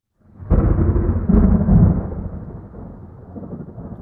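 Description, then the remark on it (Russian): A loud thunderclap bursts in with a deep rumble, swells again in a second crack, then rolls off into a long fading grumble. No voices. “Шибля, ярко блеснув, разогнал черные тучи, покрывавшие небо, и сразу все обрело покой.”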